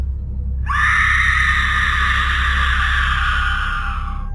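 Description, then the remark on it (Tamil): A single long, high-pitched scream starts abruptly and holds steadily for several seconds, loud and piercing, over a low rumbling background with no talking; someone screaming outside in a street, heard by people inside the houses. “அந்த தெருவில் இருக்க வீடுங்களுக்குள்ளே இருக்கிறவங்களுக்கு வீட்டுக்கு வெளியே இருந்து யாரோ கத்துற சத்தம் கேட்கறதுனால வீட்டுக்கு வெளியே வந்து பார்க்குறாங்க”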